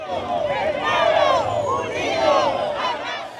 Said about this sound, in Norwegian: Tilhørerne hans jubler.